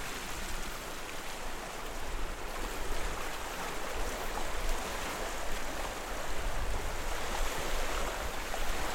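A steady, full rush of flowing brook water, continuous, with an even churning texture and no voices throughout.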